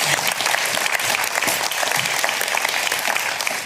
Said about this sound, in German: Herzlich willkommen zur Küchenschlacht, liebe Zuschauer. Vielen Dank für den tollen Applaus.